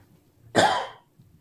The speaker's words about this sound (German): Ja, so, solange du hustest, äh, ich muss hier, ich, ich muss hier eben äh, einen Einschub machen.